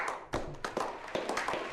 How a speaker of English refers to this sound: But I heard a strange percussive sound, and my immediately thought was, oh fuck, that thing is back. But it wasn't. It was somebody clapping.